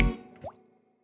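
Water drips: a soft splash followed by a single clear, rising plop as a drop hits water, then a brief fading ring into silence.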